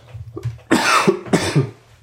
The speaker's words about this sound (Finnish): Anteeksi, anteeksi kauheasti tämä yskiminen ei, täällä. Ei mitään. Joo. Vielä tässä flunssan loppuja paranteli.